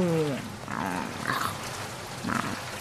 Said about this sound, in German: Genauso wie dieses verdonnerte Regenwetter, das du nur zauberst